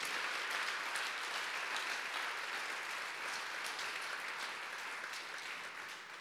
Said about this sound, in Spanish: Si este es tu Dios, yo te invito a que le des un fuerte aplauso, por favor. Bien fuerte.